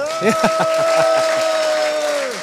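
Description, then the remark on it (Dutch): A large live audience at the Uitmarkt, wearing headphones, claps and cheers, with scattered hand claps under a long, sustained whoop that holds steady for a couple of seconds before fading out. The sound is fairly loud. “En eh, met heel veel publiek. Ja, laat, je, horen.”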